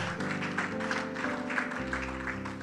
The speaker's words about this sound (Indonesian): Mari tepuk tangannya